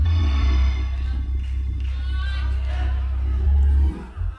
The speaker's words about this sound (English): Oh, now, now it got quiet. Everybody's just screaming and hollering. Talking about beating your enemies. Talking about dealing with your enemies, everybody hollering.